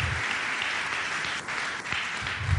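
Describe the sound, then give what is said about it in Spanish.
Steady audience applause at a Sunday evening church gathering, a dense crackle of many hands clapping at once, holding an even, fairly loud level for a few seconds without pause. “Y quiero que te des un aplauso por eso, porque escogiste lo mejor para esta noche, para el casa.”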